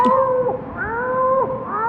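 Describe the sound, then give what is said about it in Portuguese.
An orange cat on a balcony gives a long, loud, drawn-out meow, its wavering pitch bending up and down several times like a continuous yowl, with no one talking. “alguém que vai dizer: Olha o Natal daquela garota de cabelo azul com gato laranja na sacada.”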